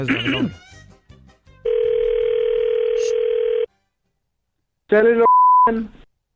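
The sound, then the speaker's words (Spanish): After a brief voice, a steady telephone dial tone hums for about two seconds as a call is placed to a mobile phone shop, then a short ringing burst with a beep follows after a pause. “Vamos a llamarle a una tienda de celulares.”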